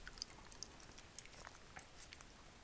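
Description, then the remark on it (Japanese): Quiet chewing of spaghetti eaten for lunch, with soft wet mouth clicks and smacks coming irregularly every fraction of a second over a faint background hiss, and no talking. “この140円で僕は今スパゲティを食べてるけど”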